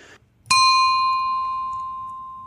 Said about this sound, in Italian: forse ho messo un po' troppe campane in questa puntata del podcast, è una puntata di testing